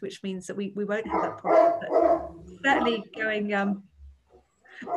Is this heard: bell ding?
no